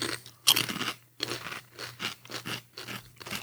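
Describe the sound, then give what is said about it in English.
A crisp kettle-cooked potato chip seasoned with turmeric and cumin is bitten with a sharp crackling snap, followed by a steady run of crunchy chewing bursts, about one every half second, with a faint low hum underneath. “And it's like eating a chip covered with cumin and sugar.”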